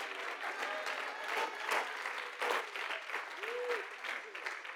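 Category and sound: crowd, weak audience applause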